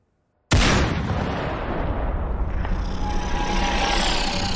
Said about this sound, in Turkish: Saat 17.17'de Chuck şansını denedi. James şimdi görüş alanındaydı. Yaklaşık 32 metrelik bir mesafeden tek bir mermi ateşledi.